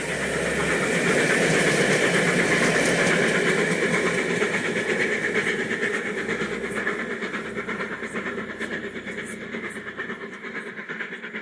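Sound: train passing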